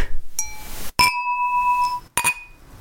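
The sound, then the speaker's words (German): Glasses clink together three times in a toast, each strike a bright ringing tone that lingers briefly before the next touch; clear with no talking. “Ich würde vorschlagen, wenn wir schon nicht auf dem Zeltplatz sitzen können und gemeinsam trinken, dass wir einfach digital darauf anstoßen,”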